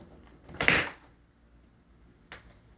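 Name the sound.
bathroom door closing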